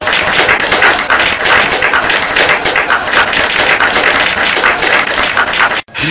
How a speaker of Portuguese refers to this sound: aplauso aí, Simone